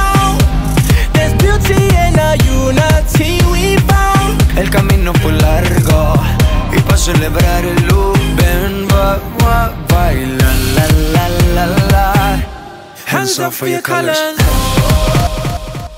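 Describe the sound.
An upbeat pop song with a sung vocal over a steady, dense beat, loud and full throughout, with a brief dropout to near silence before the track kicks back in.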